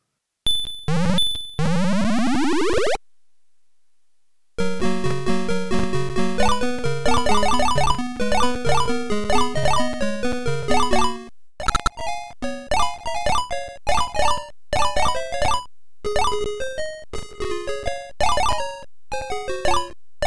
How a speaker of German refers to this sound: Wir hören jetzt mal kurz rein, wie eine typische Party Frogger überhaupt so klingt.